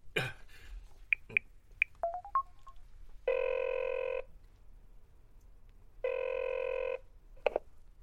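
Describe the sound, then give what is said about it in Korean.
A phone number is dialed to call back, a short run of keypad tones beep by beep, followed by two long electronic ringback buzzes with a pause between, then a faint click as the line seems to pick up. “일단 다시 전화해.”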